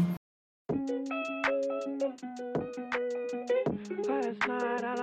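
A pop song's instrumental intro begins after a brief pause, with bright, sustained synth chords over a steady, punchy beat, playing clearly and loudly without any vocals yet.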